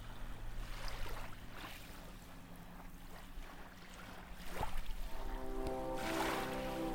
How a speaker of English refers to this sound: The waves of the water pulling you towards them. The sound of the waves feel like whispers.